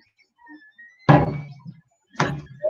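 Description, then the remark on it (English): Two heavy, solid thunks about a second apart, like a big lump of ash wood being set down hard on a surface during a wood turning session, with a faint tone humming quietly in the background. “I've got a big old lump of ash here.”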